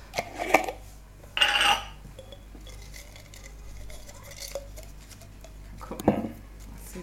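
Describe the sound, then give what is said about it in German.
A hand reaches into a glass jar to draw something out: clinking and scraping of items shuffled inside, with a sharp rattling burst early on, a brighter jingling flurry, then quieter fumbling and a final clatter. No one speaks. “Dann Griff ins Glas.”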